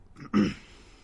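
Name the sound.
person drinking water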